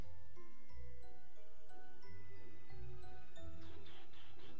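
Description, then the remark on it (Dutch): A festive Christmas jingle plays on its own over a phone line, with a bouncy bass line under chiming melody notes and a brief shimmer of bells near the end, at moderate volume and with no talking. “Kerstmuziekje.”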